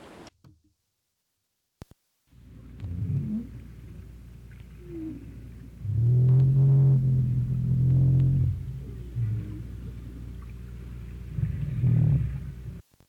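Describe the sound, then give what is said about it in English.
North Atlantic right whale calls recorded underwater in the Atlantic Ocean: a string of low, groaning upsweeps and moans, with one long, loud harmonic moan in the middle, set against a steady deep rumble of background noise. “Here are some sounds of what North Atlantic right whales sound like, their vocalization in the Atlantic Ocean.”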